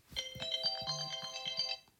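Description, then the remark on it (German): A phone ringtone plays a short electronic melody of sustained bright tones over a quick rhythmic beat, lasting under two seconds at moderate volume with no voices. “Ja, stimmt, ich habe meinen scheiß Klingelton noch an.”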